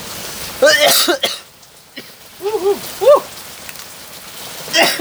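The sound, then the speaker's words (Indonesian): A few short, voiced coughs come in irregular bursts, some in quick pairs, over a steady hiss like rain in the background. “Hei masih dua batuk ping ping ping.”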